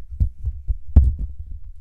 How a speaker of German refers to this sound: Ups. ich habe gerade das Handy ans Mikrofon geklatscht. Ups.